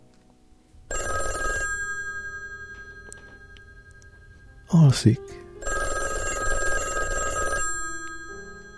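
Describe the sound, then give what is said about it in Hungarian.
A telephone in a neighbouring guest room, called through the porter, rings in two long bursts separated by a pause, a brief word spoken in between, with a short rustling clatter just before the second ring. “A telefonhoz megy, füléhez emeli a kagylót. Portás, kérem kapcsolja ide Baloganni ő a szobáját.”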